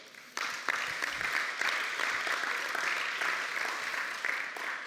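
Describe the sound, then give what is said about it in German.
An audience at an ICF church service breaks into sustained applause, a dense wash of many hands clapping that starts abruptly and holds steady at moderate loudness throughout. “Ich finde, ja, das ist schon fast ein Wunder, aber eigentlich auf jeden Fall ein Applaus wert.”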